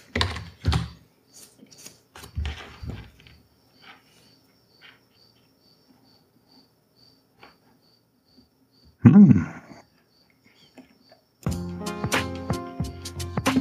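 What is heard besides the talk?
crickets chirping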